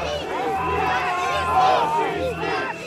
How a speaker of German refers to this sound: Sie bringen es heute zwar nur auf einige Dutzend, kaum mehr als die Polizisten, von denen sie abgeschirmt werden, aber sie sind lautstark. roter Abschaum und hier ist nicht Moskau, skandieren sie. Sieg tönt es zurück und Faschisten.